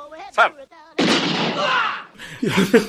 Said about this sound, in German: Alle anderen beiden schießen in die Luft. Er schießt hinter sich und er schießt dabei den unsichtbaren Schwertmenschen